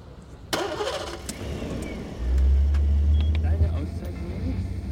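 A car engine cranks with a short scraping burst, then catches about two seconds later and settles into a steady, low rumbling idle that continues to the end.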